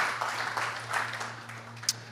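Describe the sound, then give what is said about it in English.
A church audience claps together during a service in a dense, steady wash of applause at moderate volume, with a low electrical hum running underneath and one sharper clap standing out near the end. “We can clap for that.”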